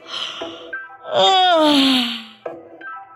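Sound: a person yawning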